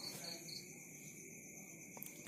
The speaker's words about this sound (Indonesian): malam ini ketika dia mendengarkan di dalam kesunyian ada suara jangkrik.